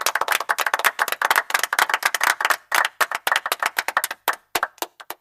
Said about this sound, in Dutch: Dan krijg je van mij een eh, groot applaus.